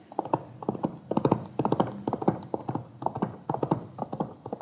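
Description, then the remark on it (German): Hollow objects held in both hands are knocked together on a towel on a table in quick triplet groups, imitating a horse's galloping hooves; a steady, moderately loud clip-clop rhythm with no talking. “Und wenn ich die so zusammenschlage. Klingt das wie Galoppieren von einem Pferd.”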